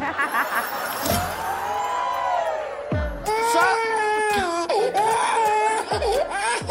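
A baby cries in wavering, high-pitched wails that rise and fall for several seconds, with a few dull thumps underneath.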